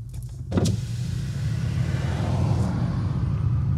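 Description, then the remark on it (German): After a brief quieter moment, a loud, low rumble of cars passing on a street swells in and holds steady, a deep droning engine noise with a faint hiss above it and no voices. “Und jetzt ist es gerade ganz still, weil gerade kein Auto kommt.”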